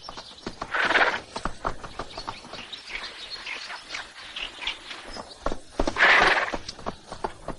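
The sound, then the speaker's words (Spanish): A horse's hooves clop irregularly in the countryside by a lake as its rider dismounts, while the animal whinnies twice, once near the start and again near the end, with faint birdsong in the background. “Mientras se baja del caballo”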